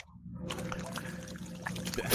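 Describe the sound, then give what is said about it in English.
Liquid pours steadily into a glass for about two seconds, a continuous splashing trickle that starts after a brief quiet moment and swells slightly toward the end. “You think that's water, but we definitely know it's not. Even if it it's was, fucking water. No, it's not. It's vodka one hundred percent.”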